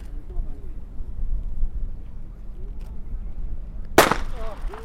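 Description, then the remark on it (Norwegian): A single sharp crack of a starting pistol at the start of a girls' 4-kilometre running race, mostly on grass, rings out near the end, loud and sudden, over outdoor wind noise and a murmur of voices talking in the background. “Der gikk skuddet.”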